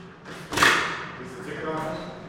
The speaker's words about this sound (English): we spot the door to the ticket booth again. After a couple of tries, Ian gets it open